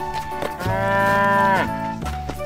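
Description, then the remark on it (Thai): A single long, loud moo with a strong harmonic drone from a white cow hauling a cart, rising then tapering off over about a second, with no talking. “ตลอดการเดินทาง วัวสีขาวต้องอดทนออกแรง ทั้งหมดที่จะลากเกวียน โดยวัวสีน้ำตาลไม่ยอมช่วยเลยจนกระทั่งถึงจุดหมาย”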